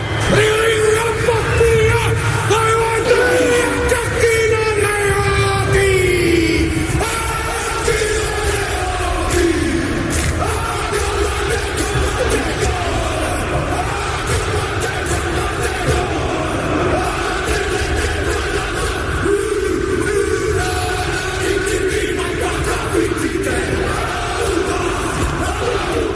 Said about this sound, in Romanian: S-a auzit o, o haca neozeelandeză, pentru că la 12 mai 1975 se năștea probabil cel mai cunoscut jucător de rugby din istorie, John Aclomu, considerat de altfel primul superstar global al acestui sport.